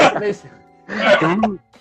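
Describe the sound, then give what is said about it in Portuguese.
Two loud, rough coughing bursts, each raspy and partly voiced, separated by a short pause and followed by a faint trailing breath. “Tava tá tossindo que nem o. O … tava tossindo que nem o leão dos dois irmãos aqui.”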